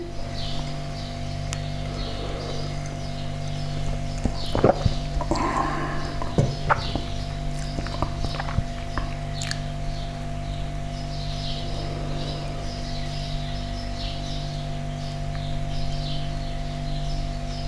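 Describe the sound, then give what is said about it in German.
Quiet outdoor morning ambience in Manschnu with scattered faint bird chirps over a steady low hum, plus a few brief rustles and knocks near the middle. “Manschnu am Morgen. Die Vögel zwitschern.”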